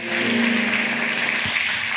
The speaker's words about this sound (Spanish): Démosle un aplauso, ella es cristiana, la, damos la bienvenida.